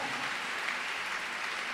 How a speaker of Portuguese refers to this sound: Pode aplaudir o Senhor.